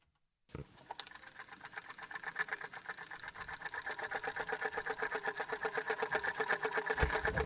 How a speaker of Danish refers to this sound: Kan du høre det? det er, ikke? Det er lyden af mit øh, manuelle Carlson vækkeur. Klokken er 22.30-ish, kan jeg jo se på det.